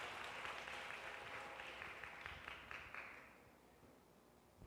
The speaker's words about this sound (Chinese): 我要特别邀请我们当中第一次、第二次在我们当中一起敬拜神的弟兄姐妹，我请他站起来，我们用最热烈的掌声来欢迎他们。